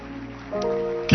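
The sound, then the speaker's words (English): An audience claps their hands for Jesus during a Sunday church service, a steady, crowded patter, with a sustained musical tone underneath and a louder burst near the end. “And I want you to clap your hands that God has made it possible for you and for me to be in church.”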